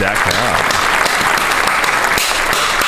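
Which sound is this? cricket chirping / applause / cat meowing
applause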